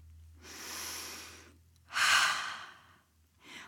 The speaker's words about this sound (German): Ich zeig's euch, Kinder. Atmet mal tief ein und aus.